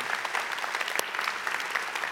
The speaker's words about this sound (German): Okay, machen wir kurz einen Applaus einmal.